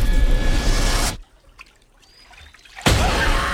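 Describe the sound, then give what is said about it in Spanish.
Water splashes and sloshes in a swimming pool in the trailer for the Blumhouse horror film La Piscina. There is a noisy burst at the start, a near-silent pause with faint drips, then a second full splash. No one speaks. “Ahí, ese agua que ya Ese chapoteillo.”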